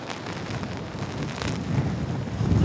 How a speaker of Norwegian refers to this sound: Det plaskregner og blåser, og hun har ikke lyst til å bli våt.